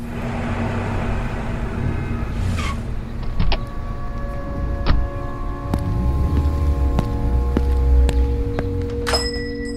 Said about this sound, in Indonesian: Hampir satu tahun kemudian, pada 15 September 1934, sebuah mobil sedan biru merek Dodge berhenti di pompa bensin 125th Street, New York.